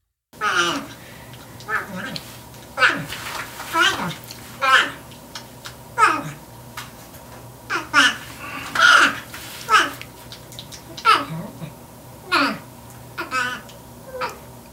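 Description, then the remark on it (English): A porcupine chatters in a rapid string of squeaky, whining vocal bursts, each rising and dropping in pitch, fairly loud, sounding almost like babbling speech. “Yeah, I mean, the first time I, I, I, ever heard those things chatter on like that, I thought I was listening to someone's clever dubbing job.”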